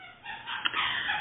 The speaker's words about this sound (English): you can hear my dogs playing with the squeaker toy in the background as well.